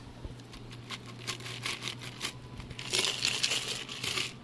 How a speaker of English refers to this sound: And we're going to double strain it into the glass.